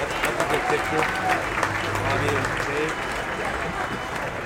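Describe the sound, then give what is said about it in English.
An audience claps steadily for several seconds in honor of a former two-term mayor and City Council member, a dense, even patter of many hands at moderate loudness, with some crowd voices murmuring and calling out underneath. “I think that right there deserves a round of applause.”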